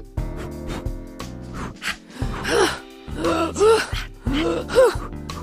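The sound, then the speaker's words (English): Voices make a series of forceful huffing breaths, each exhale ending in a strained, groan-like vocal push. The bursts come in an uneven rhythm, fairly loud, with no words spoken. “now we're doing huffing sounds.”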